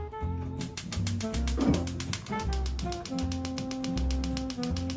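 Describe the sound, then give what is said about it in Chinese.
A stove burner being turned on to fry an egg: a rapid, evenly spaced run of sharp ticking clicks from the igniter, several per second, continuing steadily over a backdrop of music. “首先我们把火打开，”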